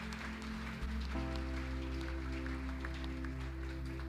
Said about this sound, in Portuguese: Se você crê e recebe essa palavra, aplauda o Senhor. Glória a Deus.